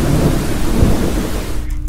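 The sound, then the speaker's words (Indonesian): A loud, steady roar of heavy rain in a storm at sea, with deep rumbling thunder rolling underneath, filling the short stretch before easing slightly at the very end. No voices. “Meskipun dalam melakukan penelitiannya ini mengharuskan dirinya berada di tengah lautan selama dua minggu dengan cuaca yang berubah-ubah, kadang cerah, kadang badai”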